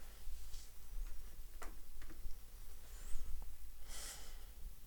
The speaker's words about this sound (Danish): Og så lige tage et par dybe vejrtrækninger.